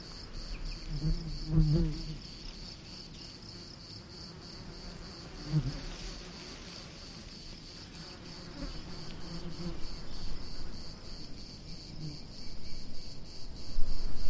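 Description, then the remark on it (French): Bees buzz steadily on flowers in a garden with cherry and olive trees and aromatic and medicinal plants, a continuous droning hum of wings with occasional louder passes as individual bees fly by, set against a soft outdoor background with no talking. “Ce son apaisant, on l'entend ce bruissement des ailes ce, bruit des abeilles.”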